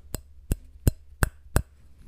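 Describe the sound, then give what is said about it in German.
A glass is tapped or clinked five times for ASMR in a steady, evenly spaced rhythm, each strike short and bright, against a quiet background with no one talking. “Okay, hier haben wir ein Glas.”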